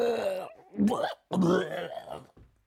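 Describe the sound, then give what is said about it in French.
A human voice imitates a dog, Doug, vomiting loudly out of a window: three throaty retching bursts in quick succession with wet gagging, the last one shorter and fading. “Dolores écrase la pédale de frein et Doug vomit bruyamment par la fenêtre.”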